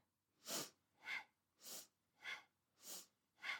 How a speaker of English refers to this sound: And as you're doing that, begin uh, with quite powerful breath, but go at the speed that feels right for you. So I'll just do the breathing so you can tell what speed I'm going.